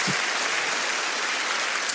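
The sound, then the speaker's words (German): Steady applause given to God during a morning church gathering, a dense continuous patter of many hands clapping at an even loudness for the whole stretch, with no voices above it. “Komm, wir geben Gott mal einen mächtigen Applaus heute Morgen für sein fantastisches Konzept.”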